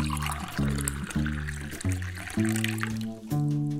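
Water is poured steadily into a glass in a few bursts for a thirsty visitor, its hollow ringing tone climbing in pitch as the glass fills, fairly loud with no one talking.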